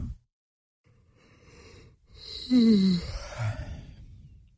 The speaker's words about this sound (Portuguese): vira para o lado, revira o lençol, dá aquele bocejo.